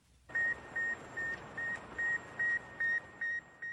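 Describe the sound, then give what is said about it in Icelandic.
A steady series of about nine short, high electronic beeps, evenly spaced and pulsing over a constant hiss of radio static: the radio signal of the Soviet Sputnik satellite, the first man-made object sent into orbit, heard as it passed over Baikonur. “Þegar Sputnik flög yfir bækunur, heyrðu þeir fyrstu pípinn frá gerfutunglunu og fögnuður bröst út.”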